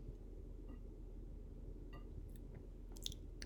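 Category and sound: food or drink, sipping a drink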